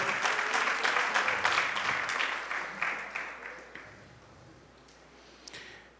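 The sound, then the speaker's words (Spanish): An audience claps for performers who have just acted out a scene, in a dense, steady patter of applause that gradually thins and fades out over several seconds, with a few scattered final claps at the end. “Ahí estamos, denle un aplauso.”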